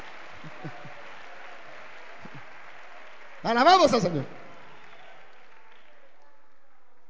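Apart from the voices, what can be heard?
audience applause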